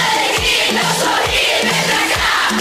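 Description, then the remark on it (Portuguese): A loud, dense crowd sings together with hands clapping throughout, while deep booming thumps land about once a second beneath the lively din. “cantos, aí cantando, batendo palmas.”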